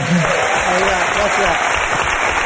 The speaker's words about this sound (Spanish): el carnaval ya lo tienes y, el aplauso del público también.